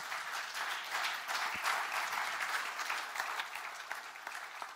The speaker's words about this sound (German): Rolf, komm nach vorne, lass uns Rolf mal einen großen Applaus geben.